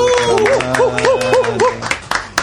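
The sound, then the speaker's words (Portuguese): Loud applause fills the short stretch, a dense patter of clapping mixed with a repeating, rising-and-falling tonal whoop over it, ending in a few sharper, scattered claps. “Uma salva de palmas.”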